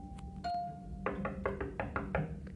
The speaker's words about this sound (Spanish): Cuando la tuvo hecha, se presentó el lobo que golpeó en la puerta diciendo